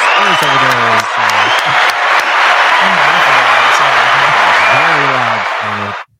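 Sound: applause sound effect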